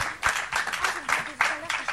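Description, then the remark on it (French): An audience applauds a band on a set in a steady, dense burst of clapping that swells and dips in waves for a couple of seconds, with faint voices mixed underneath. “Non, non, mais je voulais applaudir le groupe … sur le plateau. Donc on peut les applaudir.”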